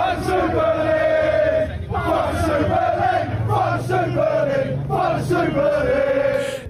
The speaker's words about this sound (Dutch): Honderden fans waren gisteren in Londen samengekomen om zich uit volle borst uit te spreken tegen de plannen.